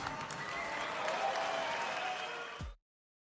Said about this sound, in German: Ja, ähm, und die Buchrufe aus dem Publikum, die hat man ja gut gehört gerade. Ja, sehr deutlich.